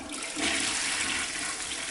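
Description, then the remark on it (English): A toilet flushes, a loud, steady rush of water that surges and swirls for a couple of seconds without any voices. “Despite many campaigns by water and sewerage companies and environmental groups, 10% of the 1.8 billion cotton buds used in the UK each year are flushed down the toilet.”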